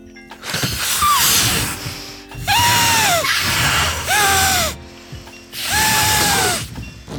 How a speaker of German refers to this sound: Also, äh, das muss man jetzt aufpusten, das Kondom, ja? So ein bisschen wie am Ballermann, ne?